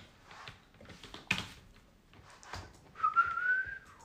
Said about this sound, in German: Und da habe ich schon wieder gepfiffen wie gefühlt jede Aufnahme.